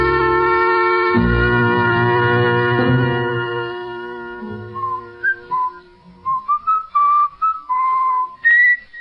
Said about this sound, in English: would you mind stopping that eternal whistling of yours? Things are bad enough in this jail without listening to that.